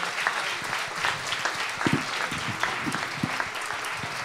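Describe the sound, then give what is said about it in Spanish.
A church audience applauds for the Lord steadily, a dense wash of many hands clapping at an even level, with a few brief voices faintly poking through the clatter. “fuerte el aplauso para el Señor.”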